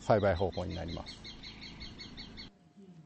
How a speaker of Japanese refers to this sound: 鳥の声もよく聞こえること、あのリンゴを取りに来る害になる鳥を追い払うためのあ鳥よけの鳥の音声ですこんなのもあるんですよ。